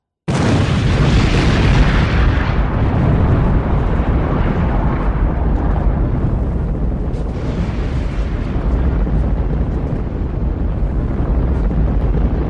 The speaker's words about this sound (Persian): از توی یک کامیونی که تو خیابون پارکه سیمکشی کردن به این بمب دستساز و منتظر دستورن رأس ساعت 3 و 46 دقیقه زمین لرزید